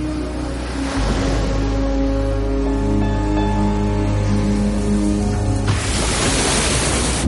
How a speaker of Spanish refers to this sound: El espectáculo prosigue y ahora las hacen saltar muy arriba en el centro de la piscina. Al introducir sus gigantescos cuerpos de nuevo en el agua, provocan un enorme oleaje